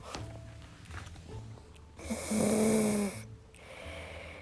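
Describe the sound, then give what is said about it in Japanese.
A young boy snores softly while asleep lying on a wooden floor, still getting over a cold with a runny nose: a steady rasping breath building to one louder, congested snore in the middle, with faint room noise around it. “えー、私が今収録をしている時隣に息子がいたんですが 眠くなってしまったのか、えー、フローリングの上で横になって寝てしまいましたちょっといびきが聞こえるの分かりますかねちょっと近づいてみますよ”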